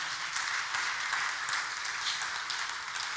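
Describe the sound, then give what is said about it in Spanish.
An audience applauds steadily, a dense wash of many hands clapping at an even level for the whole stretch, with no voices standing out above it. “Dale un buen aplauso a Rey y le gracias Señor.”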